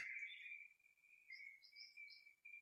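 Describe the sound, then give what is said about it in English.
Soft birdsong from trees, a steady high trill with short bright chirps breaking in and out above it, faint, with no voices. “Or maybe that exhale gets breathed in partly by the birds that are singing in the trees”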